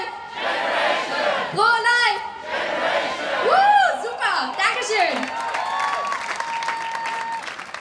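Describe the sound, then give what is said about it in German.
A large crowd shouts the slogan "Pro-Life" answered by "Generation" in unison, call-and-response style, over a continuous wash of applause and cheering, with several loud rising voiced shouts standing out from the din. “Und die haben einen Spruch, der geht, wir sagen Pro-Life und ihr sagt Generation. Kriegen wir das hin?”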